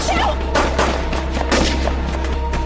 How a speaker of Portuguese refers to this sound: Mas primeiro vamos ver a cena do tiroteio em Mulheres Apaixonadas 2003. Ah, tá. Mas o que, está tá acontecendo? Não sei, o que, que é isso? É Para isso. É tiro, Theo!